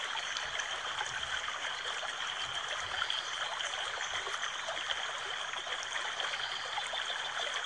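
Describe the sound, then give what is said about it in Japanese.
Steady flowing water of a very clear river from a video, a continuous rushing and trickling wash with fine bubbling texture, even in level throughout with no voices. “すごい綺麗な川の映像でもう水の底まで見えますよ、みたいな。”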